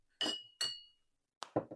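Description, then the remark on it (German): Glasses of Urkassler beer clink together twice in a toast, bright, each touch leaving a short ringing tone; a brief rustle or clatter follows near the end. “erstmal ein Stößchen.”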